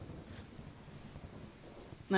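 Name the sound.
rain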